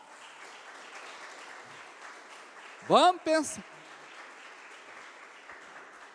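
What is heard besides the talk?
audience applauding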